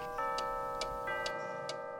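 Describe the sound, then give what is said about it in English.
Mechanical clocks in a shop tick steadily, sharp regular clicks roughly twice a second over a sustained ringing tone, with no one speaking. “a mechanical clock is one way of marking time”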